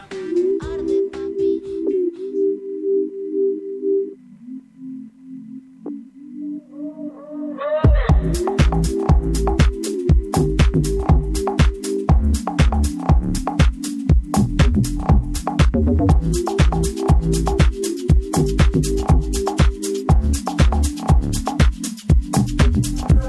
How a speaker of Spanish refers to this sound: Compartimos esta linda canción con ustedes.